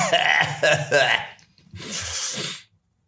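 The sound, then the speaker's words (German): Two harsh coughing bursts: a longer, raspy fit lasting about a second, then a brief pause and a breathier, noisier cough. “Entschuldigung, du kannst da rausschneiden, das Gehustet.”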